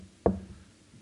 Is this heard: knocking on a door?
yes